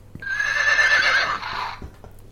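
A horse whinnies once, a loud, wavering neigh lasting well over a second before trailing off, with a few faint soft thuds around it.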